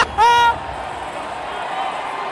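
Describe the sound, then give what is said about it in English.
A large stadium crowd at a football game roars and cheers in a steady wash of noise as player number 94 hypes them up, opened by a brief, loud, horn-like tone near the start. “He's hyping the crowd up.”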